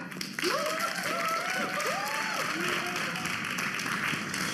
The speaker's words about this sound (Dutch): Geef onze girls nog één keer een groot applaus, ja?